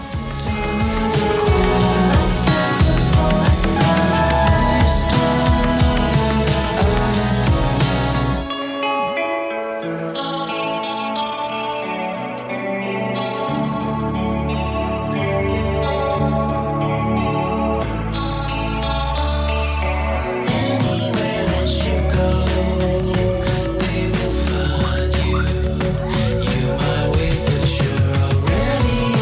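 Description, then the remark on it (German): A poppy song with heavily processed, echoing and chorused textures plays throughout. A dense, loud opening drops into a softer, thinner middle stretch before the full band surges back in. “Ähm, ein Song, wie ich finde, der mit am poppigsten ist doch.”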